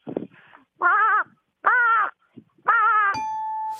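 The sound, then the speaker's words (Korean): A person imitates a crow, giving three loud, nasal caws at an even pace; a sustained electronic chime rings out right after the last one. “다른 거 까마귀 소리인데 까마귀는 또 너무 흔한 예, 것 같아요.”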